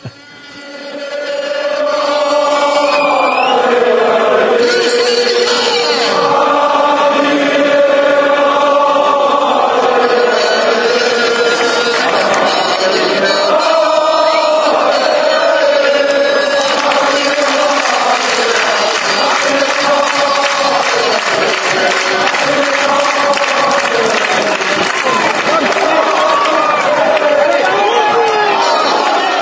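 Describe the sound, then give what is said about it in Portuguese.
A large crowd of football supporters sings a chant based on a Russian Jewish song, a loud, sustained mass of voices rising and falling in a repeating melody that continues steadily throughout. “A música original, baseada na, nessa ali que a torcida cantou,”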